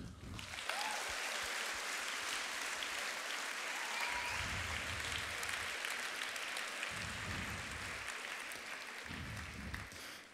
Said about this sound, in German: Ich glaube, da kann man wirklich mal klatschen, oder?